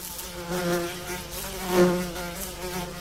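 A mosquito buzzes close by in a continuous whine for about three seconds, its pitch wavering slightly and swelling louder near the middle before easing back.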